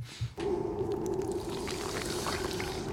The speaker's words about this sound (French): Ah, ça pète les oreilles. ah ouais, puis après ça monte encore plus. C'est l'ouverture d'un œuf